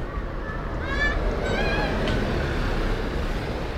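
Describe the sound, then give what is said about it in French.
Steady street traffic rumble of passing cars and buses on a Paris street, with a few brief high-pitched squeals or whines early on, continuous throughout. “Parce que là, comme tu l'as entendu, je suis passé près de terrasses de restaurants, et de passage de voitures.”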